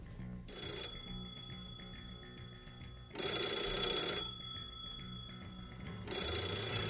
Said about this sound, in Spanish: aferrada a una mano con un teléfono de estos antiguos, un teléfono negro de los que suenan como hemos puesto antes, ¿no?